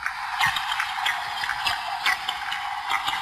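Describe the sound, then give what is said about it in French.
A steady crackling fizz, like frying, made by herring underwater releasing through the anus air bubbles taken in at the surface, with dense irregular pops and clicks throughout and no talking. “Alors bon, ça, ça fait un peu de friture, c'est normal pour des poissons. Ce sont des harengs.”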